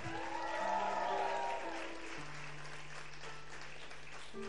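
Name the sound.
audience applauding loudly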